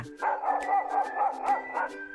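A dog barks in a quick, steady run of high, yappy barks, fairly loud, with no one talking over it.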